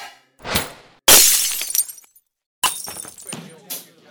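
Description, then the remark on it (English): A glass bottle, hit and knocked out of the air, shatters with a loud, bright crash and a spray of high tinkling shards that fade over a second, preceded by a short muffled thump and followed by another burst and a voice. “You destroy that bottle. That was a superb hit. You knocked it out of the air.”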